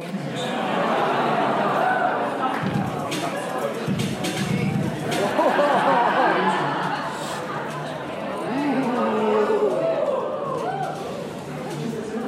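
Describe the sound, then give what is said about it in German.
A steady hubbub of many overlapping voices from a seated audience at a live Prompt Battle at re:publica, where people compete by feeding text prompts into AI image generators, with scattered chuckles and bursts of laughter rising out of the crowd chatter. “So klingt es, wenn man im Publikumsraum eines Prompt Battles sitzt.”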